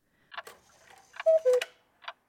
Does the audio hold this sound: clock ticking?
yes